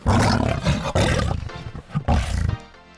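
A lion roars loudly in three deep, rumbling bursts with short pauses between them, the last one trailing off into quiet.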